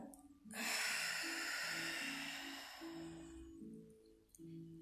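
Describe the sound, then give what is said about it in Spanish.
A single long, deep exhale during a conscious breathing exercise, breathy, rushing out strongly then slowly fading over about three seconds, with soft low sustained tones humming underneath. “Nuevamente, respira. Exhala.”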